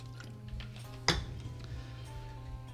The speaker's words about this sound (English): Well, since I'm the one in the party who's responsible for toasts, how about we raise our glasses one more time to the unknown?